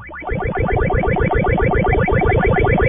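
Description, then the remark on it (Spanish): Retro Pac-Man arcade game sounds play loud, a buzzy 8-bit electronic stream of rapidly repeating, warbling tones that runs continuously for a few seconds with no voices. “El jueguito de Pac-Man que tenía un sonido característico y era tradicional, la gente lo recuerda mucho y no, la gente no, él no quiere que desaparezca el sonido del de Pac-Man.”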